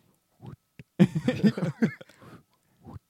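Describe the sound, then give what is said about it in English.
A voice makes a soft, breathy mouth imitation of a quiet fart, a short sputtering hiss, followed by a tiny click at the end, with a few faint vocal sounds before and after. “So this is this is like the silent fart”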